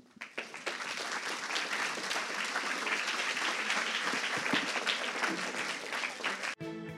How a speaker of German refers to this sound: Und nun heißen wir unsere Gäste mit einem großen Applaus herzlich willkommen.